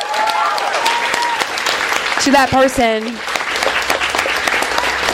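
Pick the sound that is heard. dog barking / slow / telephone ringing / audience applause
audience applause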